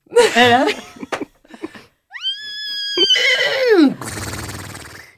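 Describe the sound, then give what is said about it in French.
A person imitates a horse's whinny: a few short vocal sounds, then a rising high squeal that holds steady before breaking into a quavering, descending neigh that trails off breathily. “Il y a le cheval aussi.”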